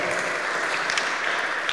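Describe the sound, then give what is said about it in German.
A crowd claps steadily for an audience member's answer, a dense wash of many hands applauding at once, fairly loud and sustained throughout the short moment with no voices standing out. “Können wir einen Applaus geben?”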